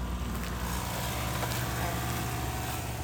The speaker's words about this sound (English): This Longmont nursery bustles with activity in spring, summer, and fall. It's quieter this time of year, except for the small work trucks,